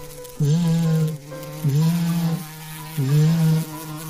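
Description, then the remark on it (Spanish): Three steady, buzzy hums, each lasting under a second with short gaps between, sound like a voice imitating a bee fluttering in a forest. The hums are fairly loud. “Abeja revolotea.”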